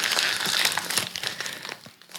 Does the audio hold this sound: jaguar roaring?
no